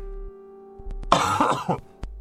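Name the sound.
coughing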